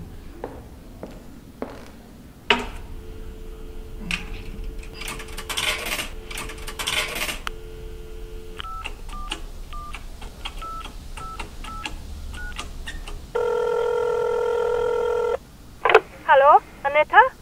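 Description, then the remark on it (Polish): Coins clink and rattle into a wall-mounted payphone at a police station over a steady hum of dial tone, followed by a quick series of short keypad beeps as a call home is dialed, and then a loud, sustained ringing tone. “Pan sobie na spokojnie zadzwoni, tam na ścianie wisi automat.”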